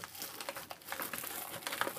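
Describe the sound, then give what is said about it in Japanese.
Raw chicken hearts spill out of plastic packaging, a continuous crinkling and rustling of plastic with small irregular bursts and soft shifting sounds, no voices. “鳥 発がボロンって丸び出とる。”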